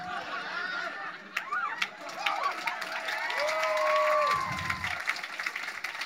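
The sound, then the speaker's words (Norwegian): Steady applause from a crowd, dense clapping at an even loudness throughout, mixed with cheering voices and a few rising and falling whistle-like calls. “Vi, vi har ikke tid til applaus.”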